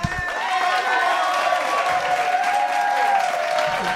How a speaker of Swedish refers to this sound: Uh, som, han kan lägga in något stort fint jubel här någonstans.